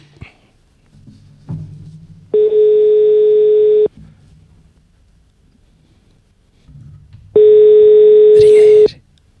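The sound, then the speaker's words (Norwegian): Two long, steady ringback tones from an outgoing phone call, each lasting about a second and a half, separated by a few seconds of quiet line noise with faint low murmuring. “Ringer. Ring, ring”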